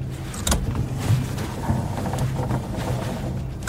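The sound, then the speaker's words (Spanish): The electric window of a very old car hums as it lowers at a military checkpoint: a steady, low motor drone over an idling engine, with a few soft thumps and no talking. “Señorita, baje la ventanilla.”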